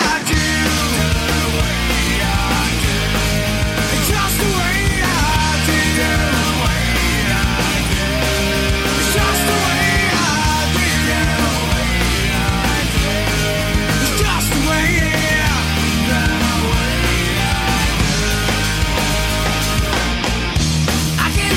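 A loud, full-band pop-rock song plays steadily throughout, with driving drums, bass and guitars filling the mix and a melodic lead line on top, without any talking over it.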